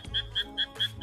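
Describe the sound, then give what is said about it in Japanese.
Frogs croaking in a quick, steady rhythm, four sharp chirping pulses in about a second, fairly loud, over a low background rumble with no one talking. “めっちゃ、カエルの声。”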